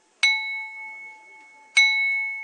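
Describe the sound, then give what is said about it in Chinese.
A handmade porcelain bowl in a traditional Chinese porcelain workshop is struck twice, about a second and a half apart, each strike giving a bright bell-like ring with steady high tones that linger and slowly fade. “我们刚刚敲今天碗的有钟声，这个碗还会唱歌的。”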